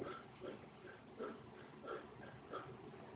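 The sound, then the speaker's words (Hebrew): A person imitates rapid, shallow panting to demonstrate shortness of breath: a steady run of short, breathy huffs, about three per second, moderately loud, with no speech. “הנה, אני, אני אדגים לכם מה זה קוצר רוח.”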